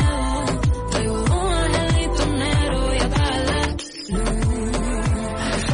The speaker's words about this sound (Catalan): Ella es va fer famosa perquè ella va cobrir tot allò i llavors va deixar la feina per anar-se'n a OT i ara ha tret aquest primer single que estem escoltant.